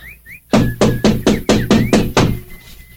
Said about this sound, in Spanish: La puerta estaba cerrada. Y de pronto sonaron aquellos golpes en la puerta.